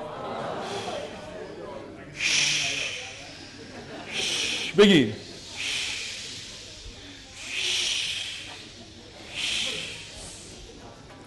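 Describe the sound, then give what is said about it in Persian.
A voice imitates sea waves with a series of about six breathy, swelling hisses that rise and fall in a slow, steady rhythm, with a brief spoken word in the middle. “و بعدم میرسیم به کجا به دریا به دریا که میرسید چجوریه”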